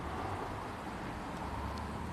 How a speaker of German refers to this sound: Ja, nein, bin ja im mittleren Ring. Äh, das ist ja Wahnsinn, du mit dem Verkehr, das ist ja irr.